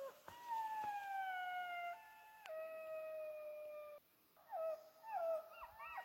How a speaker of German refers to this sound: wolltest du nicht mal einfach mal versuchen, Schakalgeheule in den Podcast reinzustellen, dass die Leute das mal hören, wie sich das anhört? Ja, genau, das machen wir jetzt mal. So hören sich Schakale an.